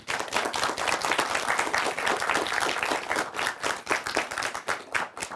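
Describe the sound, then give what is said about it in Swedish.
Sustained applause for the judges and youth teams of a competition, a dense, steady patter of many hands clapping at full volume for several seconds, with a few sharper individual claps standing out toward the end. “En applåd till er allihopa.”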